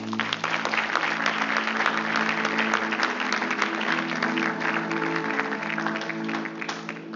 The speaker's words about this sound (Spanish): ¿Cuántos estuvieron la vez que Dios nos trajo aquí por primera vez? Levante la mano. de un aplauso.